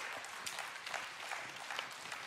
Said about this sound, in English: But instead, he went into death and darkness to save you and to save me. Amen. That deserves an applause because that's what he did.